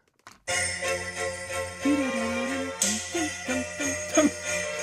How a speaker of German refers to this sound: Die armen Pferde, die werden die ganze Zeit geschlagen. reich besetztes Orchester, fünf abgestimmte Schlittengeläute, zwei Personen mit Kurierpeitschen. Das ist die Besetzung. Komponiert für einen Faschingsumzug, oder?